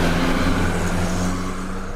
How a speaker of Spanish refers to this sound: A ver, eh, ahí viene. Es un carro Volks- Volkswagen blanco.